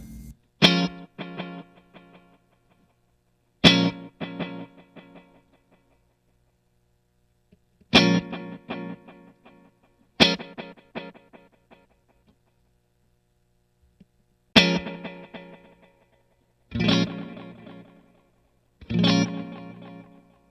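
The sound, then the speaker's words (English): A guitar played through a new Boss Space Echo tape echo pedal: seven sharp strummed chords at uneven intervals, each trailing off in a fading tail of repeats, with a faint hum underneath and no talking. “Boss Released a New Space Echo!”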